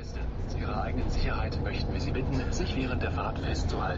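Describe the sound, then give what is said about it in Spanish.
A bus drives along a street in Berlin, past remains of the Berlin Wall and the mural of the kiss between Brezhnev and Honecker, its engine and road noise forming a steady, loud rumble throughout, with muffled voices murmuring underneath. “El autobús circula junto a restos del muro de Berlín pasa ante el mural del beso entre Bresner y Honecker.”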